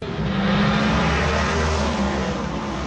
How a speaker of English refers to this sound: But when the rain finally did clear downtown, NASCAR roared through Grant Park and fans seemed to feel it was all worth the wait.